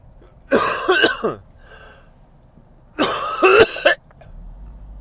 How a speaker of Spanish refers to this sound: Como es normal, y puesto que llevo una temporada que tengo más tos de lo habitual, aunque vosotros no lo notéis, porque me espero a grabar algunas veces, a que se me pase esa tos. Es una tos mañanera nerviosa, ya os contaré algún día.